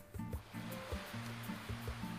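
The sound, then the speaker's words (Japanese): Gentle waves wash steadily onto a white sandy beach lined with beach chairs in a continuous soft hiss, with low humming tones underneath and no voices. “混じりのない白い砂浜に並んだビーチチェアに腰掛けるとさざ波の音だけが耳に届きさまざまな思いが巡る”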